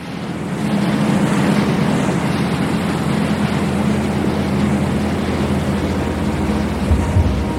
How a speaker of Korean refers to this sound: 배의 엔진 소리가 어두운 수면을 헤집었다.